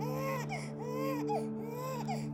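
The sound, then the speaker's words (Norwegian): A newborn Norwegian-Pakistani boy's first cry at Aker hospital in Oslo, Norway, on a dark November morning in 1975: three rising-and-falling wails, each about half a second long, thin and high-pitched with a steady hum underneath and no talking. “Allerede få minutter etter hans første spede nyfødtskrik trenger han hjelp.”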